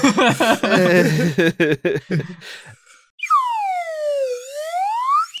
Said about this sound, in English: Do you have your swi- your swide whistle now? I'm making all my decisions with slide whistle sounds tonight, so you have to discern.